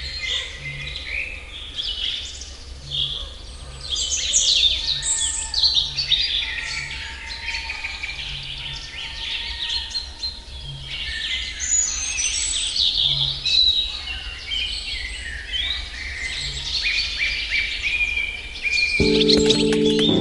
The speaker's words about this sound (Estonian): siis tehke lihtsalt varahommikul oma koduaken lahti ja kuulake, mis häält need linnud teevad